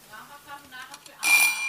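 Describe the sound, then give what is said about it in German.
A bell rings out sharply near the end, a bright, buzzy burst following a softer stretch of tonal humming sounds, loud. “Es hat geklingelt.”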